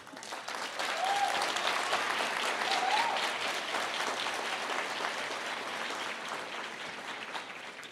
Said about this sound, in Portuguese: Eu admiro. Eu queria que a igreja aplaudisse os líderes que nós temos.